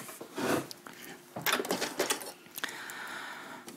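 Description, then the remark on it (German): A sewing machine topstitches a folded-in hem from the right side in short runs, its rapid mechanical clatter starting and stopping, with brief pauses between bursts and no one talking. “und es wird jetzt abgesteppt von rechts mit der Nähmaschine.”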